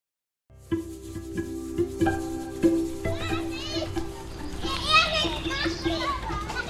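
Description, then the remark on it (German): Children in brightly colored rubber boots playing on a playground in the afternoon after a morning of rain, among puddles between the slide and climbing frame: overlapping high-pitched voices, shouts and squeals rising and falling over a steady low hum, and a few sharp knocks or thumps early on. “Am Nachmittag auf dem Spielplatz.”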